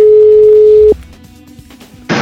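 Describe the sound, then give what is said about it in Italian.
A loud, steady telephone tone hums for about a second and then cuts off abruptly, leaving a faint line hiss before a sudden burst of static as the call connects. “lo ha raggiunto telefonicamente”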